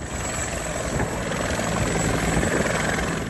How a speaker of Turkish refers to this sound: Sanayi sitesindeki bir fabrikada 70 tekstil işçisi mahsur kaldı. İşçiler sahil güvenlik komutanlığına bağlı helikopterlerle kurtarıldı.